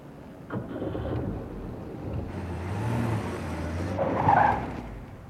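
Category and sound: vehicle, car swerving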